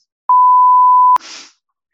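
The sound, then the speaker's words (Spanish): A loud censor bleep, a single steady pure tone lasting just under a second, covering the name of a university, cuts off abruptly and is followed by a brief, breathy fragment of sound. “ponle un pitido a la universidad.”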